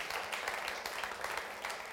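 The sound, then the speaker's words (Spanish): An audience applauds for the Lord, a dense crackle of many hands clapping at once with no single claps standing out, holding at an even, fairly loud level throughout. “Un aplauso, Señor.”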